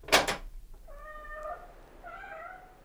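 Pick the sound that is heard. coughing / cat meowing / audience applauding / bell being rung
cat meowing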